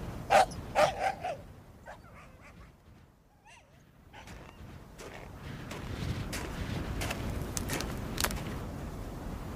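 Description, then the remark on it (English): Several sharp, loud dog barks burst out in quick succession, then give way to a noisy, rustling background with scattered fainter yips and barks. “Lord, I've ruined the dogs again.”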